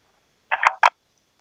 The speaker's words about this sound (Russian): О, сняла трубку и бросила, слышал, да?